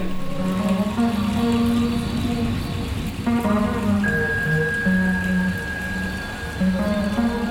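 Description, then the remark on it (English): Steady rain pours down in a dense, continuous hiss, with soft, sustained musical tones drifting over the downpour throughout; no voices are heard. “Tu parles des Anglais, et bam, voilà la pluie.”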